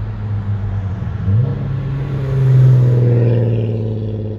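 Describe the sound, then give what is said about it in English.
A loud race car engine roars and revs as it drives past on a road, coming back after turning around, the low rumble swelling to a peak midway and then easing off as it pulls away. “he went all the way down the road and turned around, came back, passed me again.”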